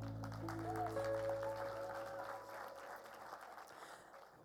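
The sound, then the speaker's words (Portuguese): Audience applause for the band at a Mother's Day gathering, a dense steady clatter of many hands clapping, with a sustained low musical chord ringing under it at the start before fading, the clapping tapering slightly toward the end. “Parabéns e palmas a eles também.”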